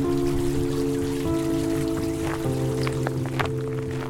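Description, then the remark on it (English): Water from a small water feature trickles steadily into a small overgrown pond in a neighborhood of Portland, Oregon, with scattered drips and splashes over a constant low hum. Continuous, with no voices. “The sound of an uninspiring water feature in a small overgrown pond.”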